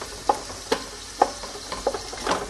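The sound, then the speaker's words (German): About 120 grams of diced bacon and onions sizzle in margarine in a pan with a steady, soft hiss, broken by about six sharp scraping strokes as the food is stirred at an uneven rhythm. No one speaks. “den angehen lassen, weil ihr gerade hört und dann den Wirsing drauf.”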